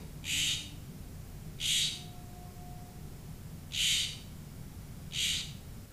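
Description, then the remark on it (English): Four harsh, raspy Florida scrub jay calls ring out at uneven intervals, each a short scratchy burst, heard fairly clearly over a low, steady background hum. “Blue Jay, Florida Scrub Jay.”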